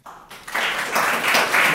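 A crowd breaks into applause, dense clapping swelling quickly from a quiet start and holding steady and fairly loud for the rest of the moment.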